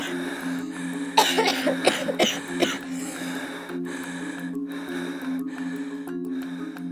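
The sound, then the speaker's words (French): A burst of harsh, sputtering coughs and gasps, several in quick succession, fairly loud, as a girl pulled from deep in the sea coughs up sea water after nearly drowning, then fading into quieter breathing over a steady low background hum. “la repêche du fond des eaux, lui fait cracher tout le sel de la mer et de son innocence.”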